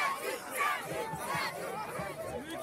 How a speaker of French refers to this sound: La foule est en délire, mon gars.